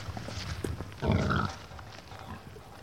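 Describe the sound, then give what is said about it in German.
A farm pig kept with outdoor access gives one loud, rough grunt lasting about half a second, with quieter snuffling and shuffling before and after against a steady outdoor background. “Ebenso wie die Kühe haben auch die Schweine Auslauf und werden nicht auf schnellstem Wege hochgepusht,”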